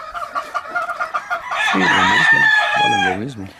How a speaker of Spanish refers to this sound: Bueno, mira, como es un gallo que yo estoy usando, que ahorita no lo vendería hasta que terminara la temporada.